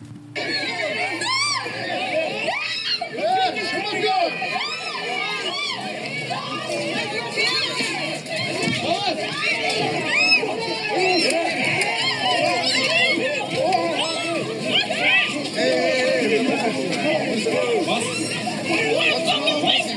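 A dense crowd of many voices shouts and yells over one another without pause, loud, with high-pitched cries rising out of the constant chaotic din, as a vigil erupts in chaos with men pushing and shoving.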